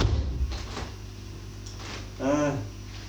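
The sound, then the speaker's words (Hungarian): A door is pushed shut with a couple of quick knocking thuds, followed by a short spoken word a moment later against a quiet hum. “Hiába csukom be az ajtót, ez egy olyan frekvencia, ami falon át szól”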